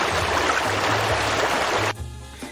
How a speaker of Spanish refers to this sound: Ya está bañando en el río.